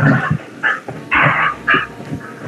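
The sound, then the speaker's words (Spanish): The speaker's own dogs bark in a quick series of sharp, mid-pitched bursts, several barks in irregular succession, loud and with no talking over them. “Perro, ahí, loco, ¿qué está pasando? Sí, sí, sí, está mis perros.”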